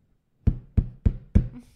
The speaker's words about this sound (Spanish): le vuelven a tocar la puerta, güey.